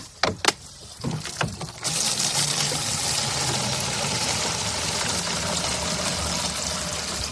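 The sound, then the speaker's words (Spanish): A few hollow plastic knocks and clunks, then a steady rush of water pouring from a tap into a plastic jug, continuing loudly and evenly to the end with no talking. The water comes from the Puente Nuevo reservoir. “Se llena rápido, ¿eh?”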